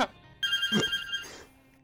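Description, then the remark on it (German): A bright electronic ringing, like a phone or doorbell, sounds once with steady high tones for about a second before cutting off into a quiet hum. “Es klingelt.”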